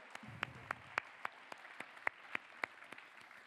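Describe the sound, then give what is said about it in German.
Sparse, brief applause for the decoration team: about a dozen sharp, evenly spaced claps at a steady rhythm of roughly four per second, fairly quiet, with no talking over them. “Äh, ja, Applaus, so gut.”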